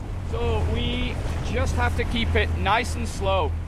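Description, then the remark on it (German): A motorboat engine drones low and steady from start to finish as the boat leaves the harbor on a trip to see gray whales, while a voice talks over it. “Schön gemütlich verlassen wir den Hafen.”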